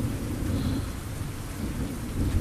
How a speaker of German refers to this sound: Für mich hört sich das an wie Gewitter.